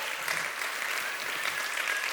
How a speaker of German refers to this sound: Komm, wir geben mal unsere Family überall an den Standorten einen riesen herzlich willkommen, einen riesen Applaus.